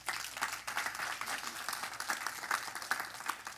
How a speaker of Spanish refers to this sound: Le da un aplauso al Señor en esta mañana.